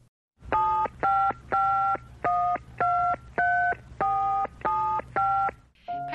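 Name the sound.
telephone dialing tones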